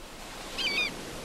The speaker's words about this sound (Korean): 갈매기 소리가 파도 소리가 네, 벌써 들려요. 아 평온해지죠.